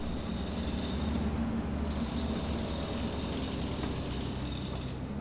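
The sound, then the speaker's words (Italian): Loud, continuous rattling of power drills and pickaxe blows by three workers in Potenza, Basilicata, a dense mechanical hammering that runs without pause from start to finish, harsh, with no voices. “Sono picconate, sono trapani, sono tutte lordate di polvere e di stanchezza.”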